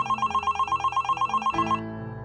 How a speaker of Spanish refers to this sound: El caso es que, una noche, unas dos semanas después de su muerte, yo me encontraba en mi patrulla y estaba solo, tomándome un café, esperando algún aviso por la radio cuando mi teléfono personal comenzó a sonar.